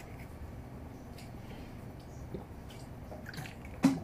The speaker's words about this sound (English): I've just taken a sip of gulps, three gulps of water, and I'm feeling really happy with that.